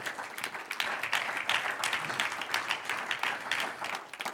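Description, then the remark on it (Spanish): An audience applauds the Lord steadily, many hands clapping in a dense, continuous patter that stays fairly even in loudness throughout, with no speech over it. “Un aplauso al Señor.”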